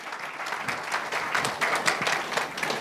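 A room full of people applauds warmly to welcome a guest, a dense, steady patter of many hands clapping at once, sustained throughout without any voices.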